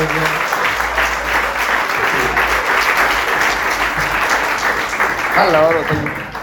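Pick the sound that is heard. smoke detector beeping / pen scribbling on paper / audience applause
audience applause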